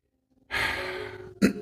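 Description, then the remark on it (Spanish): A deep breath, drawn in audibly for nearly a second, fairly loud after a moment of silence, then a short throaty burst of breath at the end, as people sitting upright breathe in deeply. “Siéntense derechitos, vamos a respirar profundo.”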